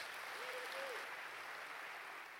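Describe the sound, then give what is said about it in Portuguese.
A church audience applauds in the evening, a steady, dense wash of clapping that holds at an even level for the whole stretch, with a faint brief tone rising above it near the start. “Quem crê, dê um grande aplauso nessa noite.”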